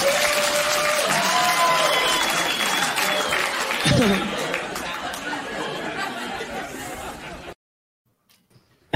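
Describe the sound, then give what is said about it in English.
Loud audience applause with overlapping chatter and some laughter, sustained for several seconds before cutting off abruptly into near silence. “We, we ended on applause.”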